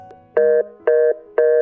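A telephone call tone from a phone call that goes unanswered: three evenly spaced, steady electronic beeps, each about a quarter second long, mid-pitched with a bright buzzy edge, sounding alone with no voices.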